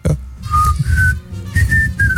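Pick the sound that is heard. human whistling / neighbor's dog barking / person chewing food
human whistling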